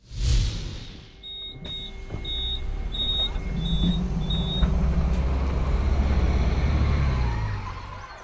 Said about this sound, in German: Das Geräusch? Der Bus steht für Wegfahren. Raus aus der Stadt.